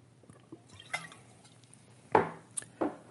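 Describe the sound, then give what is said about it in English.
Quiet liquid sounds of someone sipping sparkling water from a glass: a few wet slurping sips with small drips and a light clink of glass, separated by brief pauses, with no one talking. “I'm not sitting up here drinking beer sparkling water.”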